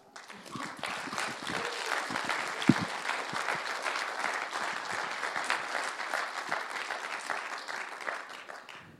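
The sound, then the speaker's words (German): Sustained audience applause for the members of a community team, a dense wash of many hands clapping steadily for about nine seconds at moderate loudness, with a few faint voices and whoops mixed in near the start. “kommt doch mal führen und geben ihnen doch einen Applaus.”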